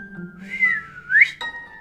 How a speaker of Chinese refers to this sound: 师徒二人继续赶路，走没几步路，才刚刚听见一声口哨